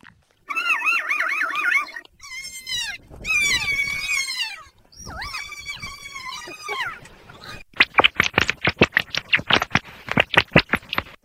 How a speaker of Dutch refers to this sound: ik heb wel voor jullie in de aanbieding eh, lachende oh, papegaaien en, en daarna eh, lachende oh, ratten. Dus eh, daar komt die.